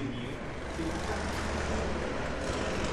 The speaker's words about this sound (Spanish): Mientras abro la puerta. Mucho ruido en la calle.